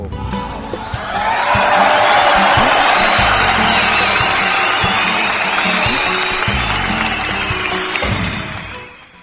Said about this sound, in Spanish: Aplausos para don Cucaracho, público conocedor. ¿Qué pasó? ¿Cómo es posible que se, se desentienden de mandarle un aplauso a don Cucaracho?